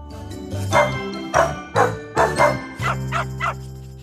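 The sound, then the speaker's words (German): An Australian Kelpie dog barks in a quick series of sharp, loud bow-wows, about six in all, with a few higher yips toward the end over a low musical hum. “Australian Kelpies brauchen eine gute Auslastung, können aber auch sehr sanft und ruhig sein.”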